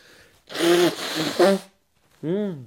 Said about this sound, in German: Warte kurz, ich muss kurz Nase putzen. Ich bin nämlich äh, heftigst erkältet übrigens.